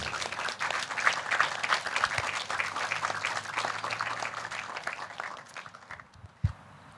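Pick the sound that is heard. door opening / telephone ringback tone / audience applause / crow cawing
audience applause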